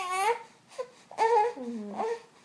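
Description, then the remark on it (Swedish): A tired baby boy who cannot settle fusses and cries in several short, wavering bursts, with high, strained wails and brief pauses between them, moderately loud and alone without talk. “Det är bara det att han brukar vara så här när han inte kommer till ro.”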